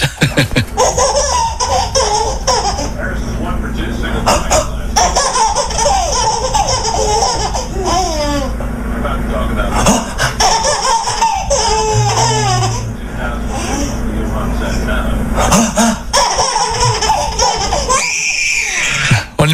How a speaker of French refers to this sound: Donc, c'est un petit florilège, une compilation ah. de fou rires spécial bébé. Alors là, c'est irrésistible. Ah, c'est que, des, euh, des bébés. Que des bébés qui rigolent, qui se marrent.